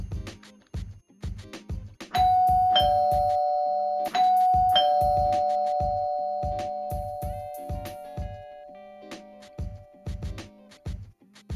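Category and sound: household object, doorbell ringing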